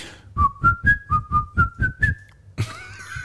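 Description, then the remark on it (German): A person whistles a short, familiar melody in clear, evenly spaced notes, about eight in a bouncy rhythm, before a different brighter, noisier sound takes over at the end. “Es ist aber, aber nur der Teil eigentlich, den sie pfeifen.”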